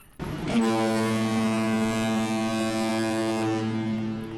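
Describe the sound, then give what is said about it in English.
A steamboat horn sounds one long, steady, low-pitched blast lasting about four seconds, loud and buzzy with rich overtones, holding at an even level with no talking. “and so many steamboats.”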